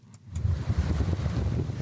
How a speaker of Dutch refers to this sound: Water is splashing over the seawalls at the tip of lower Manhattan. Ja, je hoort een heel kort stukje van de kracht van orkaan Sandy, die de kust van New York verwoestte in 2012.